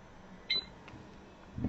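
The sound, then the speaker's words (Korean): A single short, high-pitched electronic beep rings out over faint background hiss, followed by a soft low thump near the end. “삑! 들리시죠?”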